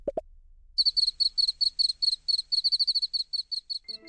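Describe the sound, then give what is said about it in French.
A cricket chirps steadily by rubbing its wings, in quick, high-pitched pulses for about three seconds, clear. A brief soft knock comes just before, and no one speaks. “Vu que les mâles attirent les femelles à l'aide de ces stridulations”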